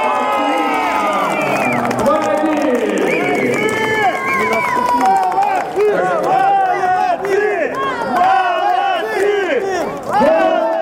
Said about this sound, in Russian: Но совсем-то перекрывать эмоции, конечно, нельзя. Ни игрокам, ни болельщикам. От души покричать в поддержку своей команды можно. Yeah!